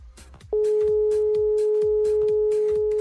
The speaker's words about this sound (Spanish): Bueno, pues sí, efectivamente, es el tono de, la llamada, ¿no? De, cuando te daban tono los teléfonos, porque ahorita este, los teléfonos celulares pues, no te dan tono, no marcas, le pones el botoncito verde y te comunicas.